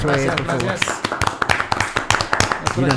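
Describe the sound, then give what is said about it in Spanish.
Audience applause in an auditorium: scattered, irregular hand claps from a small group, sharp and fairly loud, with voices talking at the start and end. “Un aplauso.”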